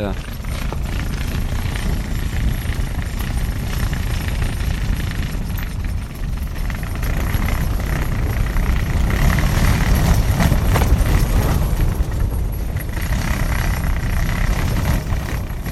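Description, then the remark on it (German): A tent flaps and shudders nonstop in a violent crater wind gusting up to about 90 km/h, its poles bending, with heavy, rumbling gusts battering the microphone and swelling louder toward the middle. “was man da hört, ist das flatternde Zelt und auch hört man vielleicht so ein bisschen, wie sich diese Zellstangen so, so biegen”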